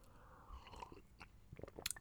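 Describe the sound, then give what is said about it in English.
A sip of hot coffee: soft mouth clicks and wet smacks build to a brief, airy slurp near the end, with no one talking. “It's it's much tougher when you're doing it all by yourself and and have to take a, a hard pause to to have a sip without uh, anybody else talking.”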